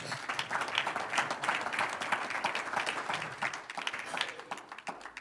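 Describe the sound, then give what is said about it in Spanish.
A church audience applauds the Lord during a sermon, with steady, dense clapping that holds for several seconds at an even level and thins slightly toward the end; no one speaks. “Un aplauso al Señor.”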